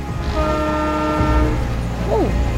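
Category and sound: vehicle, train horn sounding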